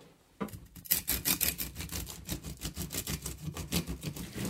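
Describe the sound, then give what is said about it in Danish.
A knife saws steadily through a dense loaf of sourdough rye bread made with rye flour, a little wheat flour and cracked rye kernels, a rhythmic series of rasping strokes repeating about twice per second with no voices. “er nødt til at have nogle ordentlige, nogle ordentlige værktøjer for at gå til det her. Det, er ikke, det, er ikke, øh, det, det, det tager altid at lære at skære råbrød.”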